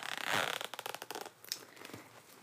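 The zipper on a bag pocket that is partly covered by another part of the bag is pulled open, a rapid ratcheting rasp lasting a couple of seconds with short bursts and small pauses as it slides along.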